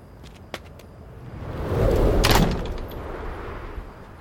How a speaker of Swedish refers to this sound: Nyfikenheten tog över och jag öppnade försiktigt den knarrande grinden och steg in på tomten.